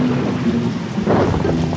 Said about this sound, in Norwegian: som hun så ut i regnet og ruskeværet